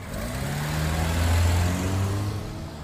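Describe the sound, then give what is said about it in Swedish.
A car engine runs steadily, its low hum dipping and rising in pitch as the vehicle brakes, stops and reverses up to a sturdy barrier blocking a small side road, with no voices. “Sandra bromsade in, stannade till och backade in mot bommen.”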